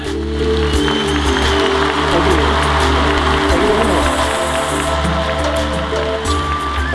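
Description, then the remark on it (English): Loud, dense applause from a show crowd welcoming Gary Renard to center stage, a steady crackling wash of clapping that holds for several seconds, with faint shouts of cheering mixed in and a low steady hum underneath. “The crowd goes wild for you, buddy.”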